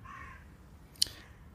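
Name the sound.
crow cawing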